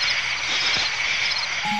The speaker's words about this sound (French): croissement en baryton des crapauds qui se prélassent dans la fricheur des lagons